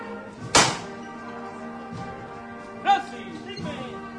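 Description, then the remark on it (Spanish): Two sharp hammer knocks signalling the float bearers as a procession sets out, the first loud and abrupt, the second followed by a brief metallic ring, over a steady murmur of crowd voices. “Y golpe de martillo.”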